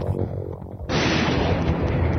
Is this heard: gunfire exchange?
yes